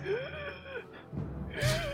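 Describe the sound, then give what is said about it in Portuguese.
Labored, difficult breathing: a strained, voiced gasp followed by a sharp, breathy inhale, fairly loud, with a second ragged gasp near the end. “E acho que a gente escuta o Baltazar, tipo, respirando com dificuldade”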